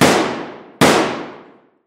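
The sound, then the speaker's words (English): Two sharp, loud pistol shots fired into the dark about a second apart, each a sudden cracking blast that echoes through a hall and fades slowly, with no voices. “Celeste whipped the pistol out of her pocket and took three shots into the dark.”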